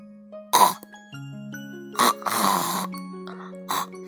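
A pig snores and snorts in sleep: a few short, rough grunting bursts and one longer drawn-out snore, all over a soft, steady tonal music bed with no talking.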